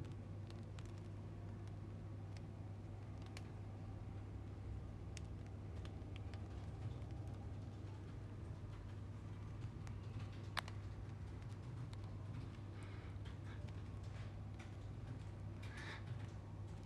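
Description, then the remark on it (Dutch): Faint, sparse crackles and tiny ticks from a freshly baked homemade bread crust, popping irregularly over a steady low hum, with no one speaking. “Ik hoor voor het eerst het brood knapperen.”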